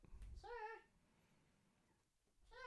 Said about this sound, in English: No, he let out a little meow. He likes to be chased down